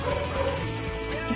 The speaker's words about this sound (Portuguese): E tem um cachorro latindo, só que não é o Clifford dessa vez